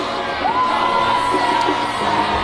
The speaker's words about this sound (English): and then people are screaming in the uh, reception area, and then there you have it.